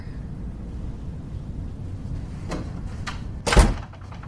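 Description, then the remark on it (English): A door is pushed shut with a single solid thud near the end, preceded by a few faint scraping movements over a low, steady room rumble. No one speaks. “Can you shut the door?”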